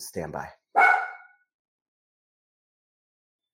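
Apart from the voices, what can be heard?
dog barking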